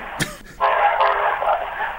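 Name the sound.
train passing sound effect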